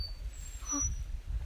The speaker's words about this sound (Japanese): この鳥の声聞こえてたらいいな